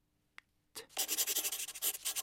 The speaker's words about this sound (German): der legt derweil, ohne meine Antwort abzuwarten, einen sauberen Papierbogen auf den Tisch und schreibt.